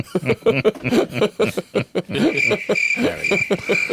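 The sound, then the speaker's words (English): A crickets sound effect: crickets chirp in a steady, high-pitched trill that begins midway and runs to the end, while people laugh and chuckle loudly over it. “Where's the crickets?”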